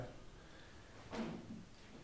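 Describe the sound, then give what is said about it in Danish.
A single soft click of a lamp being switched on, fairly faint, standing alone against a quiet room with a low background hum. “Jeg hørte lampen.”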